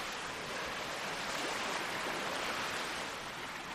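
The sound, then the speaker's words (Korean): A steady, hissing wash of waves lapping against a shore, heard while walking toward a boathouse, continuous and fairly even in loudness with no distinct individual breakers and no voices. “나는 파도가 해안을 철썩이는 소리를 듣는다.”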